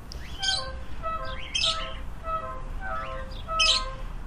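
A neighbour's parakeets, some 15 to 20 kept outdoors, screeching: harsh, raspy squawks burst out about three times in irregular rhythm, overlapping with thinner chirping calls from several birds above a steady low background rumble.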